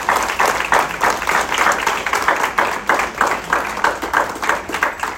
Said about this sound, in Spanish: Dar un aplauso a Cristo ahí fuerte, amado.